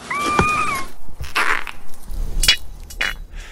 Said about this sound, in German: Ja, das waren eine Tabasco-Schildkröte, eine Brückenechse und eine Schwimmwühle. Auch solche Tiere geben nämlich Laute von sich und kommunizieren so miteinander.